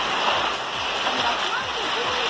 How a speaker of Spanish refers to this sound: Escuchar los granizos, Leslie.